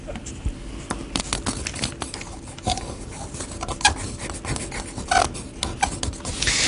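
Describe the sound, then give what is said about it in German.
A pen or pencil scratches and rubs across paper as someone draws a picture, in quick, uneven strokes with short taps and scrapes scattered through. The scratching is fairly soft but continuous, with no voices. “mal es nochmal bitte.”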